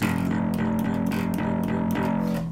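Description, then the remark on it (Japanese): An electric bass plays a steady stream of repeated root notes, the lowest note of each chord, in an even eighth-note rhythm, the simplest beginner pattern, the tone slightly gritty, with no talking. “まあ、これはね誰でも弾けますよねこれルート弾きですねこれがあの初心者でもできる一番シンプルなパターンですね”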